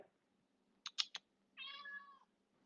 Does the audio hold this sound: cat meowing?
yes